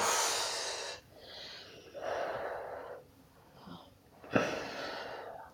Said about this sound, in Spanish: Entonces, como que con la respiración, soltando el aire,